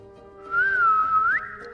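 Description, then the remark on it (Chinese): A single soft whistle comes through a gas pipe beside a fireplace in a fifth-floor room that was once a study, answering a breath blown into the pipe, lasting about a second, dipping slightly in pitch before a quick upward flick at the end, over a steady low hum. “他来到五楼，然后走进原本作为书房的房间，转开壁炉旁的瓦斯管龙头，装上了一个小小的零件，然后用嘴巴吹了一口气，另一头有了回应，瓦斯管传来轻微的口哨声。”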